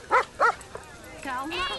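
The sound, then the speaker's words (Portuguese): A dog barks twice in quick succession, loud, and a moment later a person starts talking. “Ei, é seu cachorro?”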